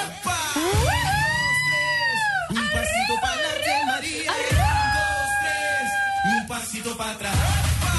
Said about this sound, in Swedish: Vilken lång ton jag fick till på slutet.